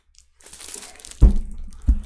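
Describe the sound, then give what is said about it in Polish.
Plastic wrap crinkles and rustles as a large Pirelli calendar in foil is handled, with a few louder crackling bursts and thuds toward the end; no one speaks. “Więc on jest w folii i na razie tak go wam pokażę.”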